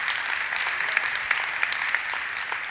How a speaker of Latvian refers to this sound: Jā, varam dot viņam aplausu. Viņš ir brīnišķīgs.